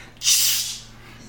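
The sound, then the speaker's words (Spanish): A short, bright hiss, a voice imitating a Glade aerosol air freshener spray, bursts in sharply, holds for about half a second, then trails off into quiet. Fairly loud, with no talking. “La gente sabe que, tú te manifestante, que te manifestaste porque suena como cuando aprietas el glade.”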